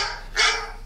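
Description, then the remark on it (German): A single short, sharp dog bark, the sound of an alarm clock, rings out against a faint, steady background hiss, with no voices. “Warum bellt dein Hund?”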